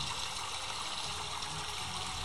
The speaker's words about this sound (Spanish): O, un sonido de, por ejemplo, de, de río.